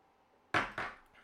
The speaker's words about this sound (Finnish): Joo, meillä alkaa vähän niin kuin tässä aika loppuun, mutta kilistellään tässä nyt viimeiset shotit ja päätetään Joo, tämän, tämän päivän jakso tähän.